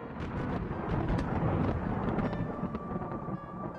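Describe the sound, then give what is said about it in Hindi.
A deep, continuous rumble of thunder rolls on for a few seconds as light rain begins to fall, heavy and fairly loud, with a steady stormy roar underneath and no voices. “हल्की हल्की बूंदें पड़ने लगी और तेज बिजली गरजने लगी”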